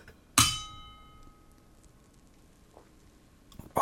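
Beer glasses clink together once in a toast, a bright chime that rings out and fades over a second, followed by quiet and another clatter at the very end.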